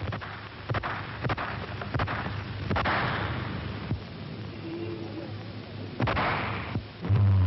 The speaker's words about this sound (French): Et soudain claque le premier coup de feu.